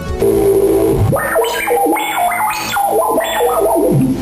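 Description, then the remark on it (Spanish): A loud synthesizer opens on a held low tone, then jumps into a bright, stepping melody of rising and falling notes, with a thin high whine and an echoey, effected sheen throughout. “Podéis escuchar que es bastante versátil y eso que solo he traído tres ejemplos.”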